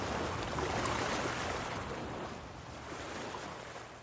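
Waves wash onto a beach in a steady, broad roar, surging slightly louder early on and then easing, with a faint rush of wind and no voices.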